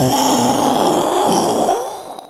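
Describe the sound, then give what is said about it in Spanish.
A person imitates a loud thunderclap with their voice: a roaring rumble that holds for about two seconds, then trails off at the end. “Si oye un fuerte trueno, haga un fuerte trueno, por favor.”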